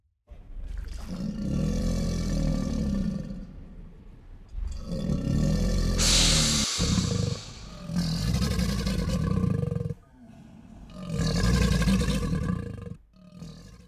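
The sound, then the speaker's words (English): An alligator bellows in four long, loud bursts, each a deep, rumbling, gargling growl separated by brief pauses, carrying on its own with no talking. “Officially, I believe it was alligator.”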